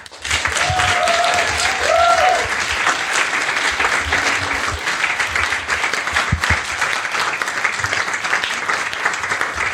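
Loud, sustained audience applause fills the whole stretch, a dense wash of many hands clapping at once with a few faint whistle-like tones early on, steady in level throughout.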